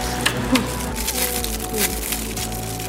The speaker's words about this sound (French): l'ASMR parce que là, vous allez entendre des bruits de bouche.